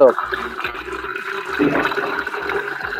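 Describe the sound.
Water runs steadily into a container, a continuous splashing gush lasting the whole few seconds, with faint muffled voices underneath.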